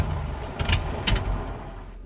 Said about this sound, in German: Der Wagen kommt stotternd zum Stehen.